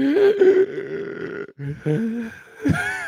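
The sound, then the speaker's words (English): A voice imitates heavy, out-of-breath panting after sprinting up five flights of stairs, with loud, strained, voiced gasps and groans: one long labored breath, a brief pause, then several short, rough heaves. “like that type of breath, like that type of breathing. I was so okay. fucking out of breath.”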